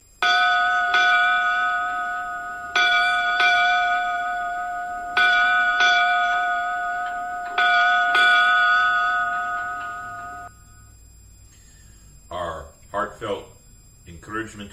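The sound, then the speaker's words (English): Eight ceremonial bell rings, struck in four evenly spaced pairs, each loud, clear tone sustaining and overlapping before fading; a few brief voice sounds follow once the ringing dies away. The bells are rung as a memorial tribute to deceased former football players. “And as we always like to do, a cheer and eight bells,”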